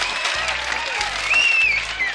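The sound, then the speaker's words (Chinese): Loud, dense applause from a large crowd, a steady roar of many hands clapping at once, with a few high whistles rising above it. “另外，还有蚂蚁的接力传话表演，笨金龟的推大球，也都获得了如雷的掌声。”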